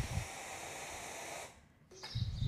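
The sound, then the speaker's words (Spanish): A steady, quiet wash of falling rain hisses evenly for a moment, then thins out and briefly fades before a softer patter returns. No one speaks over it. “Y cada vez la lluvia dura menos porque hay menos que limpiar.”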